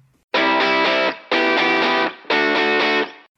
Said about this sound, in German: Wir hören ihre aktuellste Single, ganz neu, vor wenigen Wochen erschienen.